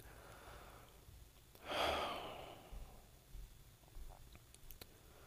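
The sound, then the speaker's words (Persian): A woman draws one loud, heavy breath, a breathy rush that swells and slowly fades, followed by a few faint, quieter breaths in an otherwise hushed setting. “صدای نفسهای ماتیلدا بلندتر شد”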